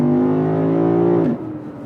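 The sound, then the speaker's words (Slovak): A steady, tonal electric motor whine from a Tesla car holds for about a second, then drops abruptly in pitch and fades as the car brakes, leaving a low rumble. “Aj to brzdí dobre.”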